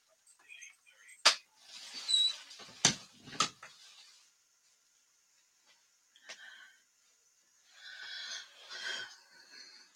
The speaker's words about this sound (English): Hold on one second. I gotta close my my door.